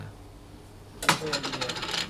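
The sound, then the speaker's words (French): A second of quiet, then a sudden metallic jangle of a bunch of prison keys being shaken, bright clinking that keeps rattling unevenly to the end, with no voices. “Schlüsselrasseln, Rufe zum Appell, Türen schlagen, Die Porte fait des bruits comme ça un peu sec, un peu.”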